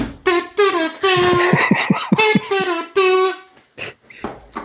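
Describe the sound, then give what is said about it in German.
A toy air horn blares in a series of loud honks, some short and some held longer, in an uneven rhythm with brief gaps between blasts. “Und ich suche such meine Tröte auch mal raus. Dann wird mal richtig getrötet.”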